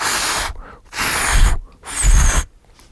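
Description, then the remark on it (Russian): Three long, forceful puffs of breath blown out in a row, breathy and hissing with a rumbling edge, as someone mimes blowing up a balloon. Short pauses separate the puffs, and no one speaks. “И мы начинаем играть, значит, просто я выдуваю воображаемый шарик,”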